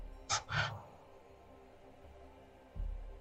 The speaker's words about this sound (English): Zoraida is starting to snore.